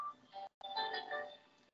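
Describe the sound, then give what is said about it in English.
A work phone's ringtone plays a bright, melodic electronic chime in two bursts separated by a brief pause, fairly quiet and with no one talking over it. “sorry, work phone.”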